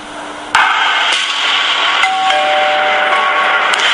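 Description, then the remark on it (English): A doorbell chimes with a clear ringing tone in a snippet from the film Pie in the Sky, over a steady wash of background noise, its tone lingering for a couple of seconds; no one speaks. “If you like pies and doorbells, and this is for drama.”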